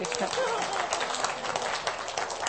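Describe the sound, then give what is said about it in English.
A small group claps together in a brief, steady burst of scattered applause, moderately loud, with no clear talking over it. “You should all clap, yay!”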